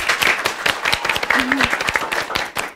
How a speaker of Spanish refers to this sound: Así que un aplauso